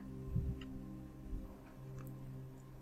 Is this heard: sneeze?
no